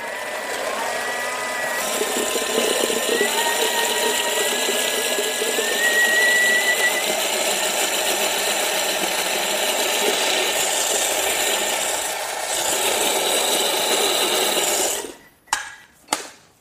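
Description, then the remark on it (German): A blender whirs loudly and steadily for about fifteen seconds, its motor churning a thick mixture of hummus and two beetroots with a gritty, grinding edge, then cuts off abruptly, followed by a couple of short clunks. “Ähm, in das restliche Humus im Mixer habe ich jetzt zunächst mal zwei rote Beete reingegeben und mixe Mach's mal.”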